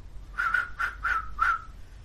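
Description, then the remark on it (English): A sharp whistle in four short, quick bursts, each note clear and slightly bending, over a low background rumble with no talking; a thieves' cant whistle signal whose short form means parley. “which is not just a whistle to you because you speak thieves' cant.”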